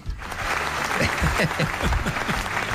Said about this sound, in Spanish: Eso es para ti, ese aplauso.